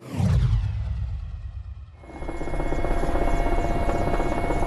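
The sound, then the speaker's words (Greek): A firefighting helicopter's rotor thumps and drones loudly and continuously, a dense rumbling whir swelling into a steady engine roar as it flies over the smoke and flames of a forest fire above Amarantos, Konitsa, near the Greek-Albanian border in Greece, making targeted water drops. No voices are heard. “Οι εικόνες μέσα από το πιλωτήριο του ελικοπτέρου κόβουν την ανάσα.”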